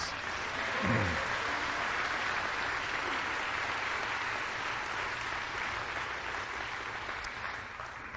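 A crowd applauds steadily for several seconds, giving the Lord a hand of praise, a dense, continuous wash of clapping from many hands, with a brief shout near the start.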